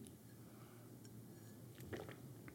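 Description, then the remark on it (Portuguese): A quiet swallow of water from a mug, with soft wet mouth clicks building to a brief gulp near the end, set against a steady low background hum. “Digo como é que é e depois venho aqui à canequita d'água e dou aquele golo de nojo.”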